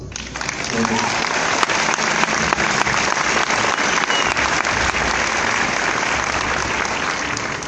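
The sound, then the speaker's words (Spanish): Sustained audience applause: a dense, steady wash of many hands clapping at an even loudness for several seconds, with scattered sharper claps poking through and a faint murmur of voices underneath. “un aplauso, ¿verdad?”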